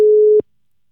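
A single steady electronic phone tone, the ringing heard on an outgoing call, sounds clearly for under half a second and then cuts off abruptly, leaving silence. No one speaks.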